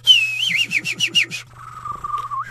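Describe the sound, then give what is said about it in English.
A person whistles in imitation of a bird that has eaten a mistletoe seed and perches on a tree branch: a bright, warbling trill of rapid rising and falling notes, then a lower, steadier whistled tone that wavers at the end. “It flies around to another tree, then it perches on a branch and starts whistling like birds do.”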